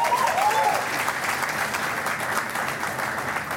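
An audience applauds steadily, dense overlapping clapping filling the room at a consistent loudness throughout, with no one speaking over it.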